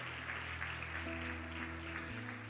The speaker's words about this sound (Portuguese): Você pode aplaudir, viu?